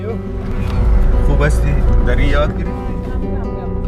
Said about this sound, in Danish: Der er alle former for trafik på vejen. Hestekær, trækvogn, knaller der. lastbiler med varer fra Pakistan, der er så fyldt, så det ligner, at de kan kollapse hvert et sekund. Og så et mylder af faldefærdige biler, fyldt med frugter og grøntsager